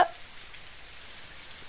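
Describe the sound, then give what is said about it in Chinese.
Faint, steady rain patter with a soft hissing texture, opening with a single sharp drip-like tap, then continuing evenly and quietly with no voices. “滴答，滴答，下起雨来了。”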